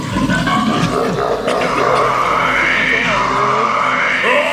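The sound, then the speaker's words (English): A loud, continuous rushing of water fills the whole few seconds, swirling and gurgling like a toilet flush, with no voices over it. “Oh no, he's being flushed down the toilet again.”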